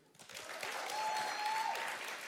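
A short burst of applause for a participant who cooked a steak, steady dense clapping from several hands that swells in quickly and holds at a moderate level, with a faint whistle-like tone running through the middle.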